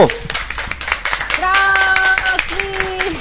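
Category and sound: crowd, applause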